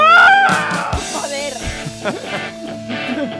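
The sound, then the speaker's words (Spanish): A person lets out a loud, high-pitched screeching yell in imitation of a heavy metal scream, strained at first, then breaking into shorter wavering vocal cries. “Haz el grito heavy”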